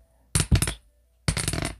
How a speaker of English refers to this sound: I keep dropping the dice.